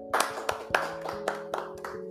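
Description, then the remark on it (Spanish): Applause in a steady rhythm, sharp claps landing about every quarter second at moderate loudness, with a faint sustained musical tone humming underneath. “El día de hoy tenemos una invitada muy especial, pero antes un fuerte aplauso.”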